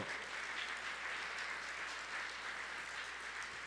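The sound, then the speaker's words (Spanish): A church audience applauds loudly for God steadily throughout, a dense, sustained wash of many hands clapping, with no speech standing out over it. “Dáselo fuerte, mi Dios y pueblo.”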